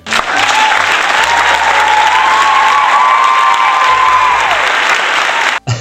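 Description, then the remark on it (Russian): Loud, sustained applause from a large crowd, dense and continuous for several seconds, with a few faint cheers or whistles rising above the clapping before it cuts off abruptly. “В этот момент слов тоже звучат бурные аплодисменты.”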